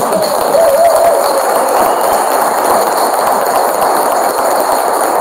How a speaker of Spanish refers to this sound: a ver, un aplauso.